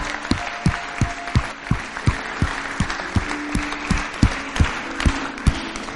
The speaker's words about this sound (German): Lass uns der Person einen fetten Applaus geben, dass wir das Entscheidende getroffen haben.